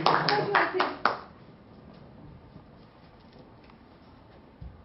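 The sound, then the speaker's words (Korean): A quick burst of hand clapping, several sharp claps in fast rhythm lasting about a second, then it stops and only faint background room sound remains. “박수.”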